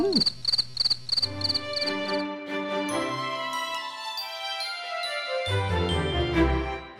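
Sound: cricket chirping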